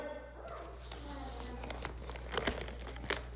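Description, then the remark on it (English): Paper rustles and crinkles as a sheet of paper with Bible verses is pulled out, with a few sharper crackles toward the end over a steady low hum. “Let me get my paper out here.”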